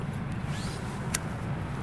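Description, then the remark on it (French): A car engine is started and rumbles low and steady throughout, with a faint rising whine early on and one brief sharp click near the middle. No one speaks. “Donc là, bon, il y a le démarrage de la voiture, les portes ouvertes, la radio.”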